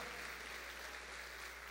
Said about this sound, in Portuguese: Quantos podem aplaudir aqui o Senhor, glorificar o nome dele? Oh, eu sou grato a Deus, eu sou grato. Se você é grato a Deus, aplauda ao Senhor.